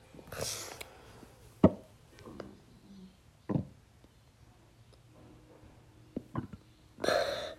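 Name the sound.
hiccups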